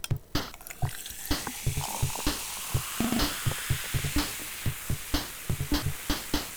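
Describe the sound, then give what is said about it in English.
Pepsi poured from a bottle into a glass of ice: a steady fizzing hiss with a rapid scatter of sharp crackles and clinking ticks for several seconds, no voices. “But for now, the temperature is down because of, uh, I guess, lots of rain and thunderstorms this morning, which means that I can now sit in here and open myself a bottle of Pepsi to pour into a glass of ice.”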